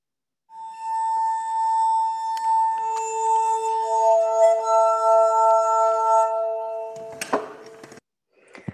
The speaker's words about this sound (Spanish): Escuchemos brevemente cómo suena la armónica de cristal sin ningún tipo de acompañamiento ni de canto.